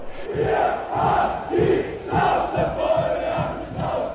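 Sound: crowd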